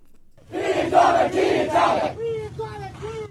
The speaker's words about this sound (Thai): ผู้ประท้วงชาวเมียนมาตะโกนข้อความเป็นหน้าที่ของพวกเราในการถอนโคนเผด็จการทหาร เป็นหน้าที่ของพวกเราในการฟื้นฟูประชาธิปไตยขณะออกมาประท้วงต่อต้านรัฐบาลทหาร ในวันครบรอบ 33 ปี เหตุการณ์ 8888 ในหลายเมืองของเมียนมา